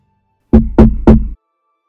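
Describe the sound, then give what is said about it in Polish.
Three firm knocks on the wooden door of a lone cottage in a wide wasteland, made by a man wanting to ask the way, in a steady rhythm, loud, each with a short hollow ring, followed by silence. “O drogę chciał jej zapytać, więc zastukał.”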